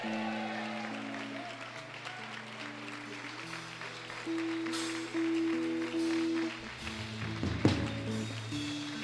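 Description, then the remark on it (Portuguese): A church audience at Igreja Bola de Neve in Brasília claps steadily over sustained organ-like keyboard chords, the dense patter of many hands running through the whole stretch at a moderate, even level. “Dê um glória a Deus e aplauda o Senhor aí, adore.”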